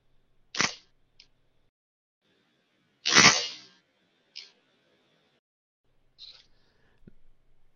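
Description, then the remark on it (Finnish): A Pentax SLR camera's shutter and mirror fire twice, a sharp clack followed a few seconds later by a longer, fuller release, with a few faint mechanical ticks in between and no talking. “Me voitaisiin tehdä hei nyt niin, että pannaan se ääni tähän nyt ihan tällaisena erikseen, ja mä tässä välissä teen yhden hidastetun version siitä, ja koitan saada sen pentax pompun editointivaiheessa.”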